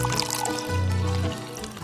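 Water pours steadily into a large pot to make stone soup, a continuous splashing fill with a rising, resonant tone that shifts partway through before tapering slightly at the end.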